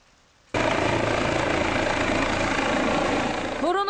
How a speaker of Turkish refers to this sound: Tek çare ambulans helikopter. İnecek en elverişli alan bir tarlaydı. Ancak iddiaya göre tarla sahipleri helikopterin tarlaya inmesine izin vermedi.